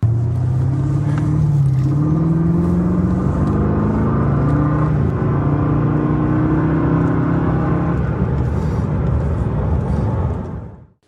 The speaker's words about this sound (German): Er hat deutlich größere Räder, nämlich 20 Zoll statt 18 Zoll und er geht etwas gemütlicher auf 100 in 5,3 Sekunden, um genau zu sein. Immer noch ganz ordentlich. Und wie der Alpina Roadster V8 so klingt, das hören wir uns jetzt auch mal kurz an.